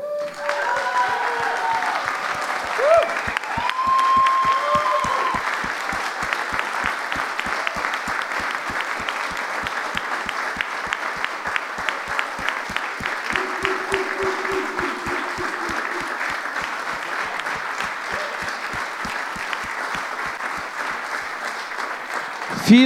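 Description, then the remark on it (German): A large crowd gives sustained, loud applause, dense clapping that holds steady for over twenty seconds, with faint voices and cheers mixed in beneath it, fitting a standing ovation. “Aber lasst uns nochmal Ihnen eine Standing Ovation geben.”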